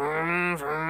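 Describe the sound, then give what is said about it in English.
A voice imitates an electric guitar that sounds like a revving motorcycle: one sustained, buzzy drone that dips briefly and surges back, loud and alone for about a second. “which was all a guitar that sounds like a motorcycle.”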